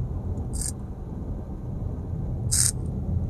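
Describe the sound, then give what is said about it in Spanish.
A vape coil sizzles in two short, crackly hiss bursts about two seconds apart, over a steady low rumble, with no one talking. “eso que suena es el, es el, es el cómo se llama, es la resistencia.”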